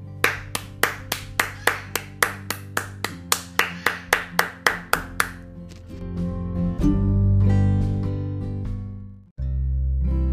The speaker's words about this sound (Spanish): a quien le brindo un fuerte aplauso.